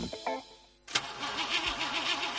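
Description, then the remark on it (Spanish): A car engine cranks over and over without catching, the starter whirring in a steady rhythmic churn after a sharp click, loud with no voices. “¿Problemas con la batería de tu coche?”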